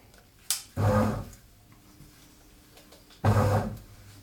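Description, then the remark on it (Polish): A bread machine starts mixing dough after its start button is pressed: a sharp click, then two short bursts of low, humming motor churning about two seconds apart, fairly loud, with quiet mechanical rumble between them. “W tym momencie cały chleb już mam e, nastawiony do pieczenia i klikam tylko przycisk start i w tym momencie zaczyna się mieszanie ciasta.”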